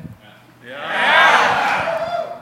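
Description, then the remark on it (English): A large live audience in Portland erupts into loud, enthusiastic cheering and whooping, swelling after a brief quiet start and holding strong through the rest of the moment. “I am in awe of this crowd and its enthusiasm.”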